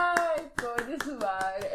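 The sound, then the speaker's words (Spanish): A steady run of about eight or nine sharp hand claps at a brisk, even rhythm, played over a voice talking continuously beneath them. “Sigue aplaudiendo que el público no sabe dónde estamos.”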